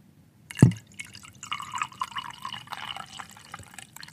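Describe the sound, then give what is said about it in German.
Tea pours into a cup in a steady trickling stream after a brief thump, the liquid splashing and burbling for a few seconds with no talking. “Das ist wirklich Tee. Ich bin nicht auf der Toilette.”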